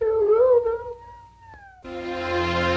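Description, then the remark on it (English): A person imitates a hound dog's howl, a drawn-out wavering cry that slides downward and fades, before a dense, steady harmonic sound abruptly takes over. “I'm a hound dog.”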